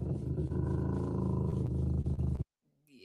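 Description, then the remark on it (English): A pet dog growls at its owner in one continuous, low, rumbling snarl for about two and a half seconds, loud and raspy, then it stops abruptly and only faint noise follows. “Yeah, I, I don't like my dog growling at me.”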